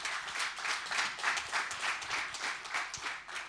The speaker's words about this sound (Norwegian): Det er lov å klappe for det, altså. Ja, takk.